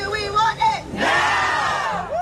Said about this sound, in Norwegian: Dette er lyd fra fans som hadde møtt opp utenfor rettslokalet i LA, der Britney-høringen skulle foregå onsdag. Og disse folka her var jo ikke de eneste som var spente i forkant av dette vitnemålet.